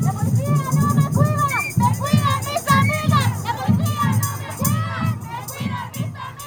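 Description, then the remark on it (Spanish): A large crowd at a mostly peaceful protest march heading along 5 de Mayo street toward the Zócalo, shouting and chanting together outdoors, many overlapping voices rising and falling in loud, continuous waves, with occasional higher-pitched calls standing out. “Aunque se registraron algunos altercados, la manifestación en su mayoría avanzaba pacífica.”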